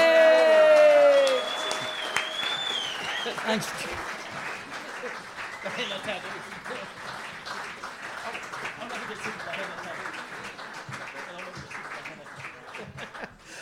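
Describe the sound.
An audience breaks into sustained applause, a dense wash of clapping and some cheering that carries on steadily for over ten seconds after a brief spoken word at the start.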